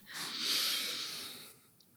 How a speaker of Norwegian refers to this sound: Det jeg gjorde nå, puste. Ja. Rett og slett uh, være oppmerksom på pust.